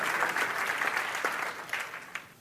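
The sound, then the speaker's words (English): An audience claps their hands in a dense, steady burst of applause that fills the room, gradually thinning out and fading toward the end with a few scattered final claps. “I'm going to wait while you clap your hands because that's the truth.”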